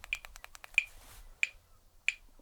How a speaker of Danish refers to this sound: Det er ja, metronom, ikke? 92 slag. Tempo 92.